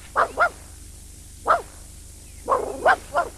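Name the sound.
dog howling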